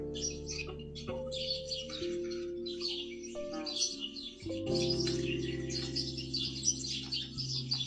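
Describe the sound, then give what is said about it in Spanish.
Many small birds chirp and twitter continuously in a busy, overlapping, steady chorus, over a low constant hum in the background. “Los pajaritos.”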